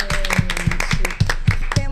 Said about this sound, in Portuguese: uma salva de palmas primeiro para todo mundo aqui.